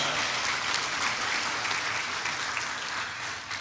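crowd, audience clapping

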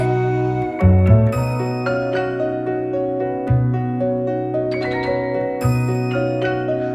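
signal or alarm, small bell ringing

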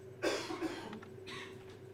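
human body sound, a man coughing

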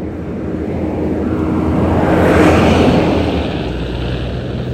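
vehicle, garbage truck driving past

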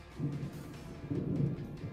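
nature, approaching thunderstorm

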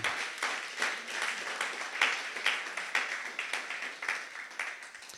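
crowd, audience applauding

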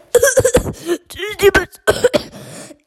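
human body sound, coughing

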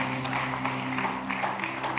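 crowd, audience clapping

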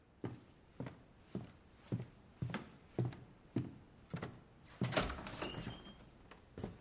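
household object, door being opened

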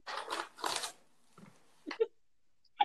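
household object, rustling paper bag

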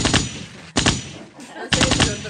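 sound effect, gunshots sound effect

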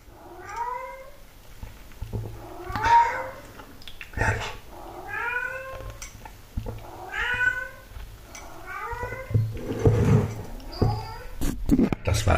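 animal, cat meowing insistently

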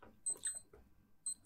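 household object, clock sounding

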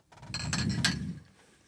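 household object, glasses clinking

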